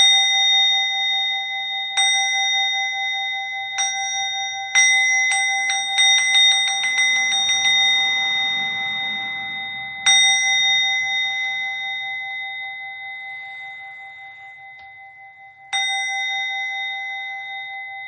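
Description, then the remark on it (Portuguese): A small temple bell rings clear as the preparatory bell before bows in a chanting service: a few spaced strikes, then a quick accelerating roll of hits, then two slow, lone strikes, each leaving a long shimmering ring. “Tem o sino preparatório para as reverências e depois reverências.”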